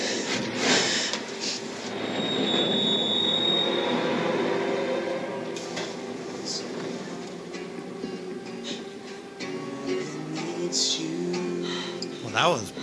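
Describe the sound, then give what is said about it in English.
A New York subway train rumbles along steadily while its wheels let out a high, thin metallic squeal partway through, with muffled voices and rattling car noise mixed underneath. “So she's obviously in the subway, so she's got to be in New York.”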